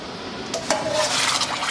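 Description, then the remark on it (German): Hot water splashes and pours steadily over metal dishes on a stainless steel kitchen counter in Basel, kashering them for Passover, with a couple of sharp clinks near the start, then a continuous rushing hiss, fairly loud, with no one talking. “Und dann, wenn das ist fertig, sehen Sie dann mit heißem Wasser,”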